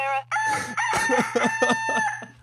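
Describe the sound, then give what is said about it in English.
A rooster crowing sound effect: one long, loud, drawn-out cock-a-doodle-doo with a pulsing, wavering tail, clear over a faint low hum. “On his farm, he had a loading, loading rooster.”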